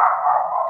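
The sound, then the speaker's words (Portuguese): A dog barks once in a single drawn-out, fairly loud call that holds steady for under a second, with no talking. “Só fechar aqui minha, minha porta, tem um cachorro latindo aqui.”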